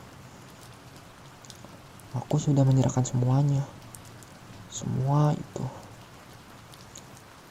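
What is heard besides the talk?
light rain drizzle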